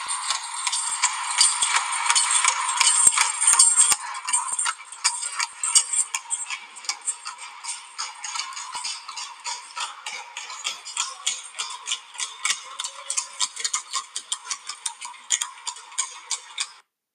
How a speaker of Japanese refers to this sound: ここにですねまた馬車が走るんですねこの音を聞いていただきたいと思いますそれではペトラ遺跡の、えー、渓谷の中を走る馬車の音です。